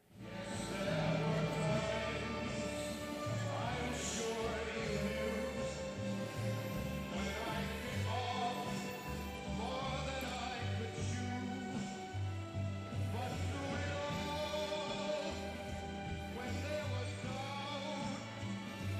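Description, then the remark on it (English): A slow, full orchestral ballad plays loudly and steadily, with a sustained singing voice carrying the melody over strings and a deep, swelling bass throughout. “Sing it. All right, you guys know the song.”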